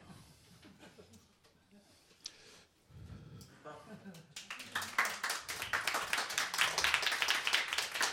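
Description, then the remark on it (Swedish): An audience at Idrottsgalan, the Swedish sports awards gala, bursts into clapping about halfway through, many hands building into dense, steady applause that grows louder toward the end, after a quieter opening with some murmuring and faint talk. “Det är tillåtet att applådera och skratta och sådär.”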